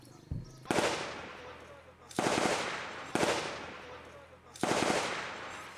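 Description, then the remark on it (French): Gunfire from Afghan government forces in combat on 24 May, about a hundred kilometres from Kabul, Afghanistan: four loud, sharp bursts of shots spaced about a second apart, each with a crackling, ringing decay, preceded by a brief dull thump. “Ce que vous entendez, ce sont les tirs des forces gouvernementales afghanes le 24 mai, en plein combat à une centaine de kilomètres de Kaboul.”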